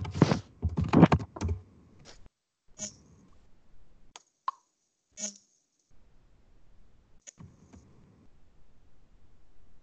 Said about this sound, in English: Uh, yeah. People are actually typing here. Hold on.